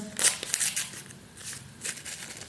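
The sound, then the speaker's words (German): Cooking powder shaken in a container makes soft, hissing, granular swishes in two short bursts of quick back-and-forth shakes, fairly quiet and with no voices. “Ich schüttle gerade das Kochpulver.”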